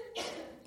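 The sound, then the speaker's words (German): One short, forceful sneeze or cough erupts, a brief breathy burst that fades quickly, with no talking around it. “Gesundheit.”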